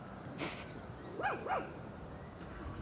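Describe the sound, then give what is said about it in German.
A dog barks twice in quick succession somewhere in the background, the yaps fairly faint against a steady outdoor hiss, with a brief sharp noise burst just before. “Und ich meine, ihr hört ja wahrscheinlich auch die ganze Zeit den, den Hund bellen im Hintergrund.”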